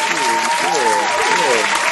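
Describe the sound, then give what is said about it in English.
Dense, steady hand clapping runs for the full two seconds, a loud continuous patter of many claps, with voices talking and calling out over it, marking an anniversary of almost a year of doing their show. “Yeah, we trying to hand clap. step a hand clap on that anniversary.”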